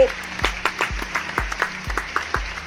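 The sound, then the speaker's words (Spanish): An audience at a festival applauds to welcome the organizer before his opening words, a dense, steady wash of clapping, while a deep thumping beat pulses underneath about twice per second. No one speaks. “Así que démosle la bienvenida, un aplauso.”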